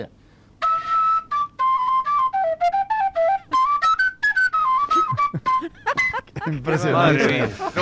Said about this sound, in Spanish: Hay uno de vosotros que está soplándole a una rueda de una bici.